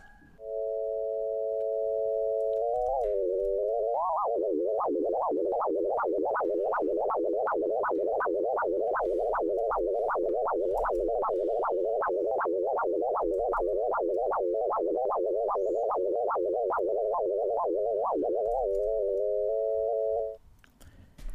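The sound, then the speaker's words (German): A continuous synthetic sonification tone of dolphin kicks that starts steady, rises in pitch as she jumps, falls again, rises as she pushes off, then wobbles rhythmically up and down in rapid, regular pulses with the dolphin kicks before settling back to a steady hum, with no talking. “die zweite Sonifikationsvariante für, mit der kontinuierlichen Sonifikation für die Delphin Kicks”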